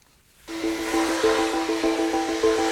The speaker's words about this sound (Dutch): Een metrostation onder de rook van Rotterdam.